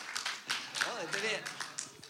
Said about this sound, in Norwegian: Ja, Bra. Eh, veldig bra stativ. Eller klapp for stativet mitt.